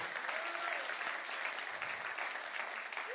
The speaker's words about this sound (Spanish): Alguien que le dé un aplauso al Señor y diga amén.